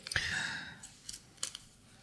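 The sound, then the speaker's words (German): Crisp rustling of small paper slips as one is pulled out of a container, a brief scratchy burst followed by a few quieter papery ticks and crinkles, with no voices. “Raschel, raschel, raschel, liebe Zuhörer.”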